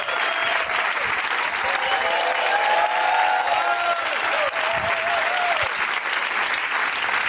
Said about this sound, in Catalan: Ja ah, podeu aplaudir. Fortíssim l'aplaudiment, sisplau.